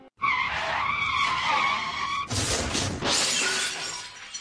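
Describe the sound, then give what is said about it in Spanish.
A car's tires screech in a long, loud skid, then it slams into something with a burst of shattering glass and crunching debris, all loud with no voices. “Pero, por poner un ejemplo, si yo tardo años en construir un coche con mis propias manos, algo de lo que sería incapaz, no cojo y salgo del garaje para estamparme contra lo primero que encuentro a ver si se abolla.”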